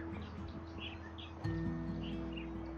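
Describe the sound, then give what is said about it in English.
A chaffinch sings a series of short, high chirping notes, fairly faint, over a steady low hum of background noise; no one speaks. “Ah, there's another bird.”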